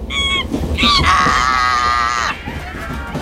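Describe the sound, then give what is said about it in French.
A child screams loudly to scare off a monkey: two short high-pitched cries, then one sustained piercing scream lasting over a second that cuts off abruptly, followed by quieter background noise. “Tom, en voyant le singe, met les mains devant les yeux pour se protéger et crie pour le faire fuir.”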